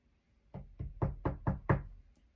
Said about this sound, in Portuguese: Eu, se fosse eu, se eu não tivesse problema com esse vizinho, eu ia lá bater na porta dele e falar: